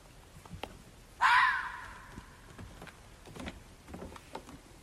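A single loud, harsh call of a roe deer during mating rings out close by in a forest at night, recorded on a mobile phone after a motorcycle engine was switched off; a hoarse drawn-out cry that trails off, followed by quiet outdoor night with faint scattered clicks and rustles.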